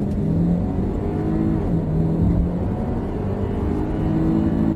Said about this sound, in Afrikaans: Maar ek het nou die oprit gevat op die snelweg en ek gaan nou kyk hoe hierdie ou na 120 versnel.